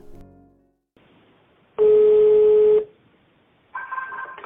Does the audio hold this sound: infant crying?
no